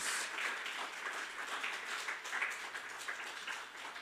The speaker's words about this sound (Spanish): Dale ese aplauso fuerte al Rey de Reyes y Señor de Señores.